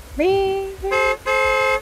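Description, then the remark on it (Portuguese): A car horn honks three times from the driver's seat of a car, one long blast and then two shorter ones, loud. It is likely a voice imitating the honks, with the first rising in pitch before holding steady. “Eu dou uma buzinada.”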